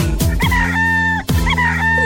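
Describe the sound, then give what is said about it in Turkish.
A rooster crows twice in quick succession, loud, each call a bright, drawn-out cock-a-doodle-doo with a sustained high note, over a steady musical backing. “Elinde horozları var”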